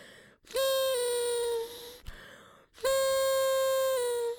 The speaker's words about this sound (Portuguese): Eu sinto que quando respiro para dar a segunda uh, gaitada, uh, respiro todo o pó que estava dentro desta corneta, que devia ter, desta corneta deve ter alguns 10 anos, perdida nesta casa.